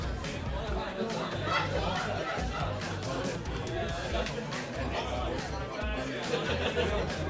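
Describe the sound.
A dense, steady hubbub of many voices talking at once, like a lively party crowd, with overlapping chatter and occasional louder exclamations filling the whole space.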